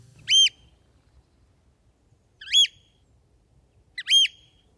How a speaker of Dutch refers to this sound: De Piet, dat is de roep van de Scholekster.